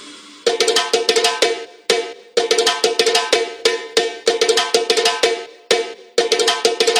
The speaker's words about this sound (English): listen to the drums.